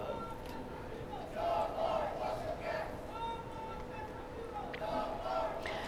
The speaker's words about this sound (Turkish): Siz de söyler, söylemiştiniz yayına girerken arkamda e, protestocular, aktivistler var bugün diye.